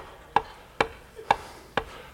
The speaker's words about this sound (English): But Peter continued knocking.